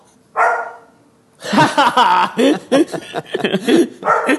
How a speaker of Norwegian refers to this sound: Bra timing på den bikkja.